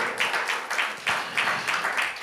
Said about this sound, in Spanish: Bueno, démosle un fuerte aplauso al Señor nuevamente, por favor.